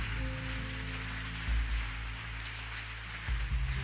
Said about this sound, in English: Oh, if you are clapping, clap well.